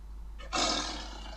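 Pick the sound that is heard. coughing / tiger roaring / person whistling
tiger roaring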